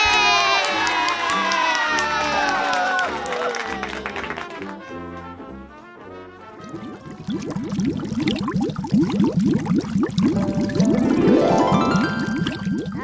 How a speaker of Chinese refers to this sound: 各位小朋友，你答对了几题呢？是三题、两题、一题，还是零题？我们都要帮你掌声鼓励一下。Yeah!